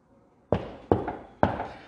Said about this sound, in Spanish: Ya cansados de caminar, José dice, María, vamos a tocar esa puerta.